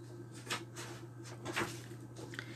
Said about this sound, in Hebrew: קפץ מעל גבו של הסוס, דחף את הדלת, ונכנס פנימה.